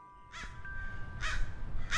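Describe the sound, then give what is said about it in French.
A crow caws three times at a steady pace, harsh and raspy calls, with a low rumbling background and no one speaking. “Il leva la tête et aperçut un corbeau qui faisait tomber les noix.”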